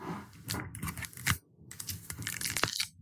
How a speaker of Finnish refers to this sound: Avataanpa nyt tämä sinetti.